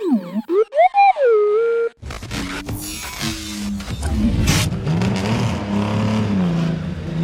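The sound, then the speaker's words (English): A short burst of warbling electronic tones gives way to a car engine loudly revving, its pitch climbing as it accelerates away, with no one speaking. “thank you, Bezor, for this list and for the ride. I had no idea you had a car.”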